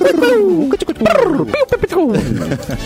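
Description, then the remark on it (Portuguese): A voice imitates a downtown city pigeon's cooing with a string of loud, wavering hoots that swoop up and down in pitch, nearly continuous with a few brief breaks. “Uma, uma é... pomba do centro.”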